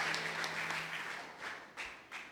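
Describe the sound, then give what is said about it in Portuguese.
A church audience gives applause for Jesus, a dense wash of many hands clapping at once with a few sharper claps standing out, holding fairly steady before fading slightly toward the end. No one speaks. “Você pode aí dar uma linda salva de palmas para Jesus, amém?”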